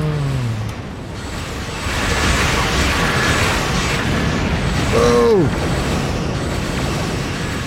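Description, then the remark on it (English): Rumbling sci-fi starship explosions in a video game space battle, a steady roar of blasts and debris with a brief whooshing, descending electronic tone partway through, loud. “great explosions. Really great explosions.”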